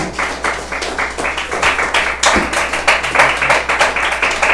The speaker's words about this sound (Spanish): Denle una de palmas al Señor con todo su corazón, hermano.